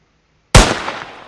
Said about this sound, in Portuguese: Quer um tiro mais certeiro de sniper?